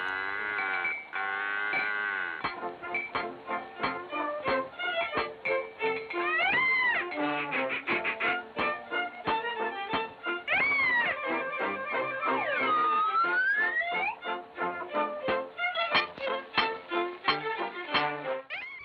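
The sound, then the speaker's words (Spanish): A bouncy, old-fashioned melody from a 1928 Mickey Mouse cartoon short, with squeaky, animal-like tones and sliding whistle pitches over a steady plucked rhythm, fairly loud with no one talking. “La melodía que suena proviene de un cortometraje de Mickey.”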